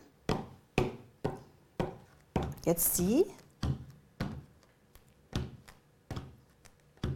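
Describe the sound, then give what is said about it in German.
Two people tap out a steady rhythm with their fingers on a wooden tabletop as if playing piano, around a dozen crisp knocks evenly spaced, with a brief spoken phrase breaking in partway through. “Wir spielen mal beide ein bisschen Klavier auf dem Holztisch.”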